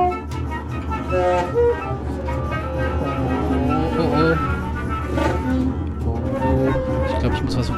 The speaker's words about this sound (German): Was ist denn dieser Sound? Was ist denn hier? Oh, Sekunde mal, ich muss dich mal überprüfen. Der Motor läuft gar nicht rund. Der ist viel zu laut. Der wird immer lauter.